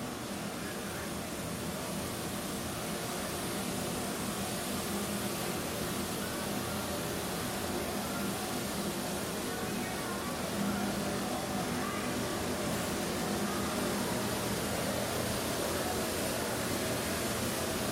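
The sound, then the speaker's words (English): The Jordan River in flood stage, in a 2015 video, rushes and roars in a dense, unbroken wash of noise that holds steady and loud for the whole stretch, with no pauses or distinct splashes. “That is a raging river.”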